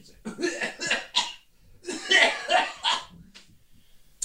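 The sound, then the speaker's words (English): A voice imitates a man's harsh, throaty cough as he puts up lights on a roof: a rapid series of rough, raspy hacking bursts, then a longer, louder fit of violent, strained coughing, loud, ending with a faint sniff. “stops, and uh, he starts coughing.”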